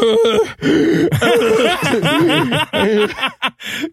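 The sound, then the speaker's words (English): A voice imitates asthmatic wheezing, pushing out loud, strained gasps with a whiny, wavering pitch that run almost continuously, broken by a few short pauses. “stop doing your impression of an asthma girl.”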